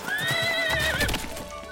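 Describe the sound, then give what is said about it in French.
A carriage horse gives a loud, high, wavering whinny that slides downward in pitch near the end as the coach is ordered to stop on a small road in southern England, while the dull clip-clop of hooves thuds beneath it. “Cocher, faites arrêter la voiture tout de suite”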